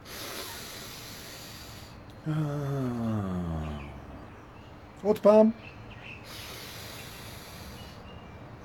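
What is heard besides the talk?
deep breathing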